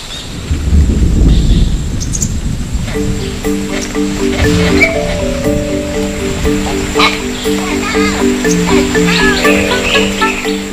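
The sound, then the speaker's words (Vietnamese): A deep roll of thunder opens, followed by a steady, dense hiss of heavy rain that continues throughout, with soft musical tones layered over the downpour. “nhưng một cơn mưa rông đã gột sạch mọi xúc cảm lãng mạn, hay có lẽ nó không đáng để làm con khỉ đực đầu đàn phải để ý tới.”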